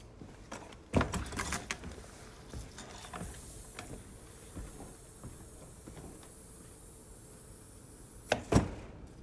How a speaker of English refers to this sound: And I usually go out through the back of my house, through the woods to the power line. Porch door's a noisy old thing.